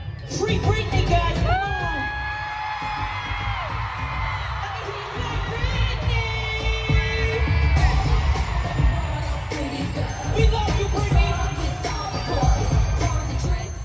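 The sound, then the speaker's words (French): A loud concert crowd roars and cheers continuously while a singer yells "Free Britney" at full voice during one of her concerts, with sustained shouted notes rising above the dense, echoing din of the audience. “Britney est alors soutenue par de nombreuses stars, parmi lesquelles entre autres Drew Barrymore, Dolly Parton, Miley Cyrus et même …, qui n'hésite pas à hurler son soutien en criant Free Britney à plein poumon pendant un de ses concerts.”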